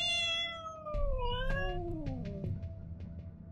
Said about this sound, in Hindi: बिल्ली बेचारी दर्द से छटपटाने लगी पर गणेश जी अपनी मस्ती में इतने मगन थे कि उन्हें इस बात का कोई फर्क नहीं पड़ा